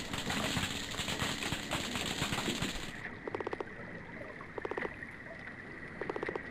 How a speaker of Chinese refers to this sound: 而虾类会通过摩擦身体部位产生出类似于刺耳鞭炮的声音。